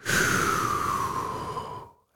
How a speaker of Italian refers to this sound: La funzione rilassamento tu la, la e ti chiede quanto vuoi rilassarti, un minuto, tre minuti, cinque minuti un minuto, benissimo. E lui ti inizia a far respirare. Quindi inspiri, espiri.